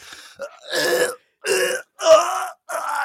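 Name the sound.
imitated gasping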